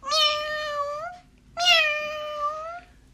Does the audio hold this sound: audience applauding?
no